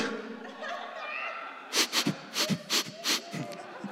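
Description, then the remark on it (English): Someone imitates sniffing with about six sharp sniffs in a quick, uneven rhythm, following a second or so of low background murmur. “we start sniffing each other.”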